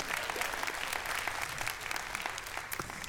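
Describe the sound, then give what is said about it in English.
A crowd applauds steadily, a dense wash of many hands clapping at once with no pauses, holding an even loudness for about three seconds. “Sure, you can give that a round of applause.”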